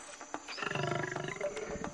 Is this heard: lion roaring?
yes